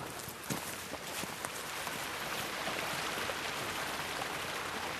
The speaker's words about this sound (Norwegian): Ja, nå er vi ved Kvernhuset, og vannet sildrer under.